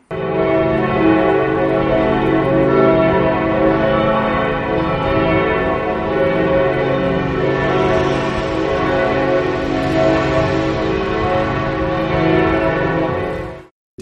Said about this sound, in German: Neulich hatte ich mich mal positiv darüber geäußert, dass mal eine Zeit lang dieses beschissene Glockenläuten um 9.20 Uhr am Sonntagmorgen ausgesetzt war. Was muss ich heute um 9.20 Uhr hören?